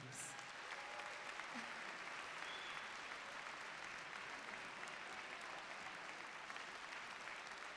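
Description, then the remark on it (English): Steady audience applause, a dense wash of many hands clapping that holds at an even level for several seconds without pause or voices rising above it. “Please, please, another round of applause.”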